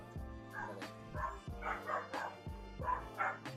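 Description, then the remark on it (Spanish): A dog barks repeatedly in the background, several sharp barks spaced roughly a second apart over a steady low hum, moderately loud, with no one talking. “De hecho, se escucha un perro de fondo”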